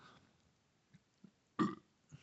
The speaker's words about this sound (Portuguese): Pera aí que eu vou arrotar agora. Tem que, tem que arrotar, né? É tradição já.